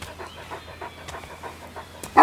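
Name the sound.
dog panting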